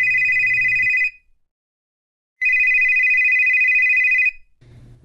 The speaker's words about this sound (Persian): وقتی سوار ماشین شدیم موبایلم برای چندمین بار شروع به زنگ زدن کرد